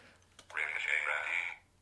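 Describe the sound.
A brief burst of robotic synthesized speech from the text-to-speech voice Ricochet Randy, about a second long, thin and tinny in tone, with a hollow echoing reverb trailing off before quiet returns.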